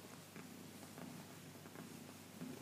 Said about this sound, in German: Ich weiß nicht, ob man sie schnurren hören kann, also wenn ihr irgendwas, wenn ihr irgendein komisches Hintergrundgeräusch hört,